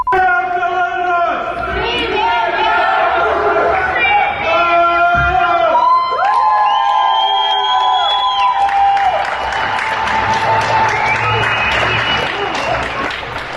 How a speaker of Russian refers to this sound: Вечером в Минске прошла акция «Огни солидарности». Жители домов, например, в районе Каменная Горка, подсвечивали свои окна, свистели и кричали.